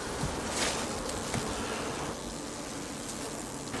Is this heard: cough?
no